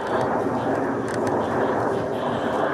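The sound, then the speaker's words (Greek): Loud, steady roar of Greek and Canadian air force fighter jets, including F-16s and Canadian F-18s, flying in pairs during a large Greek-American military exercise; a dense rushing noise that holds at an even level throughout without a distinct rise or fade of a single pass. “Ακολουθούν σε ζεύγη μαχητικά της ελληνικής αλλά και της καναδικής αεροπορίας.”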